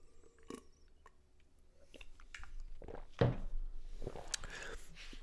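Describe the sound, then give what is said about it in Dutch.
Someone takes a drink of water: soft sips and mouth sounds, a small gulp or clink, with quiet breaths and faint shuffling in between, no talking. “Even een slokje water.”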